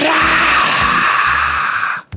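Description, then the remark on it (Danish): A voice imitates the fire-breathing roar of Charizard, the Pokémon: one loud, sustained, raspy, hissing exhale lasting about two seconds with a rough growl underneath, then an abrupt stop. “Jeg overvejer virkelig at prøve at sige sådan en Charizard, der spyr ild-lyd”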